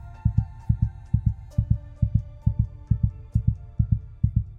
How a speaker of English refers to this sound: In that moment, her erratic heartbeat drowned out everything else.